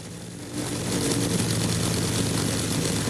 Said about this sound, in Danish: Ja. I kan godt gætte, hvad det er. I kan godt høre, hvad det er. Det lyder som et gammelt propelfly. Det er et gammelt propelfly, det er det. Jeg ved ikke, hvor gammelt det er, men det er et propelfly, det kan jeg fortælle dig.